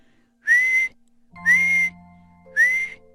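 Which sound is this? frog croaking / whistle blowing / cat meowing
whistle blowing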